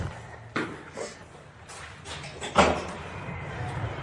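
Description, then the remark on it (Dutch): A front door is opened with a clunk and then pulled shut with a louder thud a couple of seconds later as someone goes out, over a low background rumble. “Ik ga de deur uit.”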